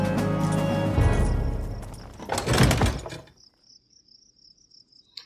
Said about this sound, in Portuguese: Sem pensar duas vezes, Sérgio Hallwinter se direciona até a entrada da colina de pedra, abre a porta e entra.